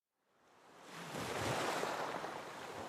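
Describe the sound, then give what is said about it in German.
Broad, rushing ocean waves on the North Atlantic, somewhere between France and Spain, under a glaring midday sun, rise out of silence and swell into a steady, full wash of surf on open water, with a faint windy edge and no voices. “Auf dem nordatlantischen Ozean, irgendwo zwischen Frankreich und Spanien, scheint die grelle Mittagssonne auf ein mittelgroßes Segelschiff.”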